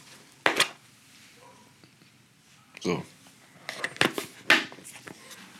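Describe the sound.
Close-up handling of a plastic lunch box: a few sharp clicks and clattering knocks as it is turned and its lid snapped open, spaced irregularly, with a brief murmured word.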